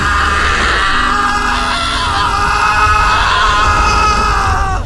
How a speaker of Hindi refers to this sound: कान के पर्दे फाड़ देने वाली चीख सुनाई